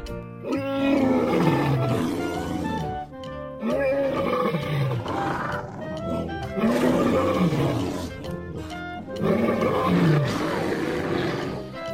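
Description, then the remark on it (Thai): A bear and a lion fight, trading loud roars and snarls in four long surging bursts with brief gaps between, growling almost continuously throughout, as the bear claws and bites the lion to death. “เจ้ามีนั้นไม่อาจจะปกป้องเจ้านายของมันได้ทันด้วยความโกรธมันจึงตะปบเข้ากัดสิงโตจนตาย”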